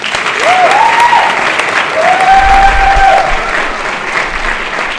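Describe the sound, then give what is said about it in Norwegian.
An audience applauds steadily for several seconds, a dense, even wash of clapping, while a couple of whistles rise and hold above it. “Vi må gi ham en skikkelig klapp.”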